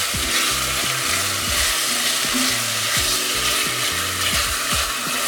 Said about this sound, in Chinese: 那鸡肉呢，其实是煎到稍微表面有一点点金黄色就可以了。那这个鸡肉呢，为什么会变成金黄色呢？